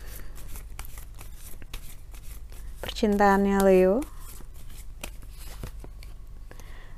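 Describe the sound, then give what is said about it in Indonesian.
Tarot cards being shuffled and drawn, with a steady scatter of quick, crisp papery flicks and snaps throughout, and a voice briefly speaking a short phrase midway; the card drawn is The Emperor. “Kartu yang keluar adalah The Emperor ataupun energi raja.”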